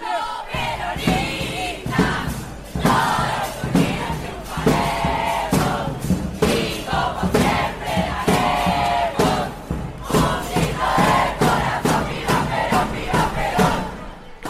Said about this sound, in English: high school in Buenos Aires called the Carlos Pellegrini School. And they were outside till like four in the morning, uh, chanting and cheering as they were waiting to find out who was going to be the student body president elected for the next year.